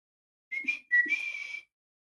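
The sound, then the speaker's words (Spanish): A person attempts a loud two-part whistle call of the kind used to call someone: a short first note, then a longer sustained one, both breathy and airy rather than clean and piercing. “ellas me llamaban con ese silbido y silbaban tan fuerte, tan fuerte”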